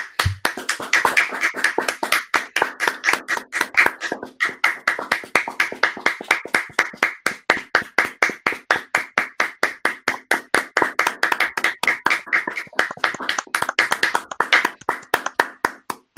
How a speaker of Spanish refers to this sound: Son las 8 minutos, no hemos querido cortar, pero vamos a hacer un aplauso de 15 segundos para todos los sanitarios y sanitarias de España. ¿Qué os parece? Perfecto. Venga.